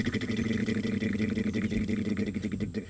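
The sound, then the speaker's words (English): A voice imitates the helicopter-like wing buzz of a hummingbird at a feeder with a steady, droning motor-like hum, held continuously for about three seconds at moderate loudness. “So I was gonna replace it, but then I heard I heard like this this helicopter sound behind me, like”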